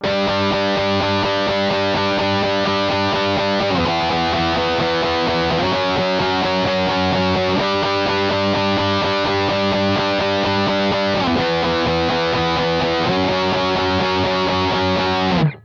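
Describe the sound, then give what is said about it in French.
A loud, distorted electric guitar plays a punk riff using only fifth chords (power chords): thick sustained chords shift every couple of seconds in a steady pattern, with no voices, ringing out before a sudden stop. “Si je jouais ce riff avec uniquement des quintes, des accords de quintes, on entendrait ceci.”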